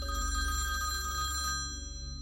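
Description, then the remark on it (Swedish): A landline telephone bell rings in the hall of a family home early on a Friday morning in July 2001, a rapid metallic trill, steady, then the ringing cuts off near the end leaving a faint low hum. “Telefonen ringer i hallen hemma hos Ulrika Åkessons föräldrar.”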